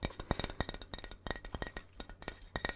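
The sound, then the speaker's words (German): A sturdy, firm cup, handled without its lid, is tapped in a quick, uneven run of sharp clinks and knocks, some with a brief bright ring, with no voices. “Schauen wir uns jetzt nur den Becher an. Der ist wunderbar. Fest.”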